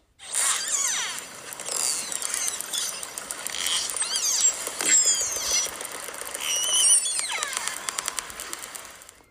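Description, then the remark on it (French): Underwater orca calls: rising and falling squeals and whistles layered over rapid clicking trains and buzzy pulsed bursts, fairly loud and continuous throughout, with no voices. “Quel bruit fait la baleine Un orque produit ce son.”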